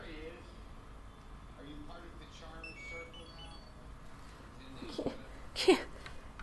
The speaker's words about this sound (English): it's beeping. What's beeping? It's beeped twice now. Is he dead? Something dead? My Gutatam, my my Gutatama Tamagotchi, it keeps beeping.